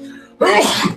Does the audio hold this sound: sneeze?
yes